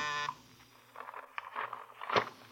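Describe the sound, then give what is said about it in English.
A doorbell gives a single short, harsh buzz at the start, then cuts off, followed by a few soft thumps and rustling movement. “He was contemplating all this when the doorbell rang.”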